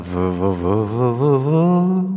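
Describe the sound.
A voice imitates an alphorn, a long cone-shaped wind instrument played by herders driving sheep in Switzerland: a steady buzzing, horn-like drone with a gently wavering pitch that rises slightly and holds for about two seconds, moderately loud.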